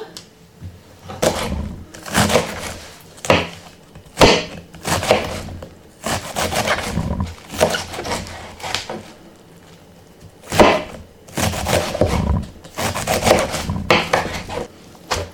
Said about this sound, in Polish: I teraz posiekam drobno. Na tyle, ile potrafię. Pokrojoną kapustę, część pokrojonej kapusty, ale wrzucam ją do zupy chińskich. Pierwszą połówkę kapusty już mamy pokrojoną.